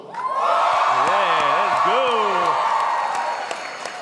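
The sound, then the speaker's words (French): A live audience in Sherbrooke bursts into loud, sustained applause mixed with cheering, with a few rising and falling whoops standing out early on before the clapping tapers slightly toward the end. “Une bonne main d'applaudissements pour vous autres.”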